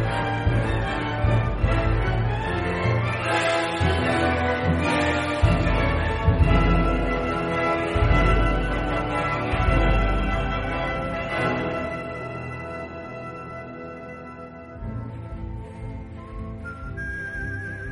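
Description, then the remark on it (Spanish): A western film theme song plays loud and full, with a whistled melody riding over a steady orchestral backing. It thins out briefly near the end, and no voices sing yet. “Escuchemos a … en este duelo en el y corral”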